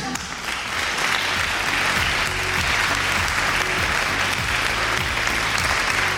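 A room full of people claps steadily and loudly for several seconds, a dense, sustained wash of applause that swells in quickly and holds at full strength throughout.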